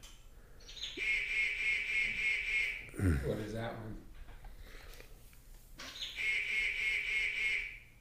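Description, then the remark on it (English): A water bird gives two long, steady, nasal calls, each about two seconds and fairly loud, separated by a short pause in which a person briefly speaks. “Oh, that's one of those Water. one, of those Terry birds that I never get right.”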